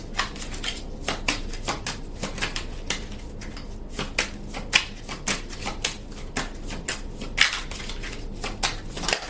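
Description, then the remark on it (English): A deck of tarot cards being shuffled, a continuous run of crisp papery flicks and riffles with small taps, steady and brisk for several seconds with no talking. “Okay, may I have some cards, please?”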